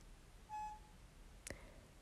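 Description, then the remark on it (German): A baby monitor with an empty battery gives a single short electronic beep, a clear steady tone, followed a moment later by a sharp click, against a quiet background. “Der Akku von dem Babyfon ist leer, er piepst immer im Hintergrund.”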